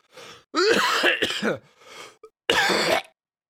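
A person coughs and clears their throat in several raspy bursts, trying to clear a lingering cough stuck in the throat, with brief pauses between them and no talking.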